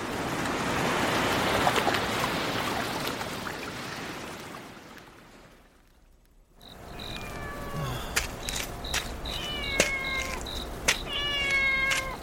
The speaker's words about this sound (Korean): 어, 길고양이. 배고프겠다.